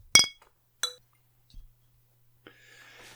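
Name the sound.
beer glasses clinking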